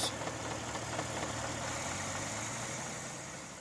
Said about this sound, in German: Vier Jahre, diverse Rückschläge und zwei Versuchsmotoren später ist es endlich soweit. Im Februar 1897 läuft der Motor zuverlässig.